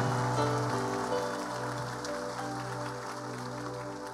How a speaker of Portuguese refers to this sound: Se é para aplaudir, aplaude, querido.